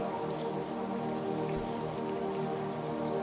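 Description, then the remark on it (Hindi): Steady rain falls continuously, a dense, even patter of drops on a surface with no pauses, moderately loud, over a soft sustained hum underneath. No one speaks. “अगर किसी वजह से ऐसा हुआ है तो बारिश में भीग जाइए दर्द गिले शिकवे भुला दीजिए मौसम का मजा लीजिए”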